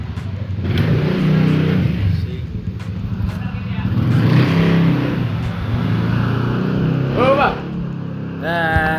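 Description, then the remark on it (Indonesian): An engine is revved repeatedly by kids, its low roar swelling and easing in several bursts, while voices briefly cut in near the end. “memang bocah geber-geber”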